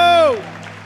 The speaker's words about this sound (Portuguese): Se você crê nisso, dê um glória a Deus e aplauda o Senhor nesse lugar e adore.